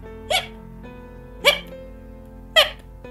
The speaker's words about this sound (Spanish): La ovejita se devoró la zanahoria tan rápido que le dio hipo.